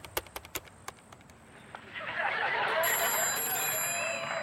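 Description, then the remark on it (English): A few sharp taps give way to a telephone ringing inside a house at 11:30 p.m., a steady high-pitched electronic trill over a layer of background hiss, with no one speaking. “Inside the house, Steve Kushner and his roommate Patty are sprawled out on opposite ends of the couch when they hear the phone ring.”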